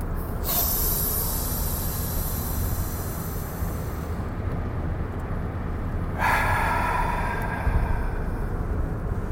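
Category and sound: human body sound, deep breath inhaled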